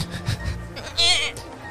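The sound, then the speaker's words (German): A person gives a short, wavering goat-like bleat, a single quivering "meh" imitated by voice, fairly loud, following some brief murmuring. “Und billige Ziegen. Mäh.”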